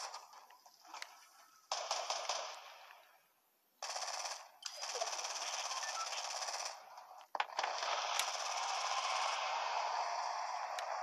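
Rapid bursts of video game gunfire, with shots coming from the west, crackle in long sustained stretches, broken by brief pauses and sharp single shots, fairly loud with no talking over them.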